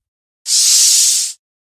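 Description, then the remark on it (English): A sci-fi cell door slides open after a code is entered on its keypad, in one smooth, loud burst of airy, high-pitched hiss lasting about a second, starting and stopping abruptly, with no voices. “It slid open to reveal a thin, gray-haired human male lying on the pallet at the far end of the small room.”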